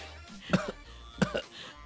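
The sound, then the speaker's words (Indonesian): Two exaggerated, mannered coughs in an elegant British royal style, spaced about a second apart, each a short double 'ahem'-like burst. They are fairly soft, with near-silence between them and no talking. “Itu batuk anggun oh, batuk. ya batuk ala, ala kerajaan Inggris.”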